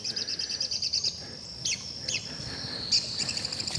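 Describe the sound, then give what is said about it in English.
Red-cockaded woodpeckers calling from a tree in their habitat in West Georgia: a few sharp, squeaky chirps scattered irregularly over a steady high-pitched insect drone outdoors, with no talking. “the red cockaded woodpeckers just lit in that tree right there. Hear them?”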